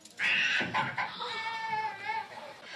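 A newborn baby bursts into loud, close, high-pitched wailing that starts abruptly and continues in strained, quavering cries, with no talking. No distinct thud stands out before the crying.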